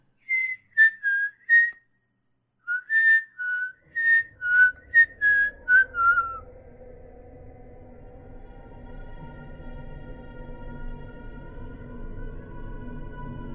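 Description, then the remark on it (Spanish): An eerie, wavering whistle repeats in a string of short, clear notes, like a slow uneven tune, before a low, dark drone swells in beneath it and takes over. “aunque algunos dicen que hoy, a un año de todo esto, a veces en esa misma sala, puede escucharse su silbido, que le eriza la piel a quien lo escucha.”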